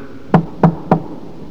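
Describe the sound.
A woman's knuckles give three evenly spaced knocks on a wooden house door at four in the morning, crisp, with a hollow low thud to each rap and quiet between them; no one speaks.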